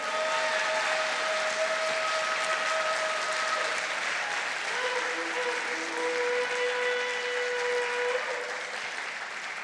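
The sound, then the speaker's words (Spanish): An audience claps steadily and continuously in applause for God, a dense, sustained wash with a few faint tonal hums beneath the clapping and no voices standing out. “Un aplauso, si es para Él, dáselo más fuerte.”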